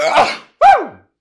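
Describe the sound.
A loud sneeze into a microphone in two bursts: a harsh, breathy blast, a short gap, then a sharp voiced cry that sweeps downward in pitch and fades out, loud enough to push the mic into the red zone.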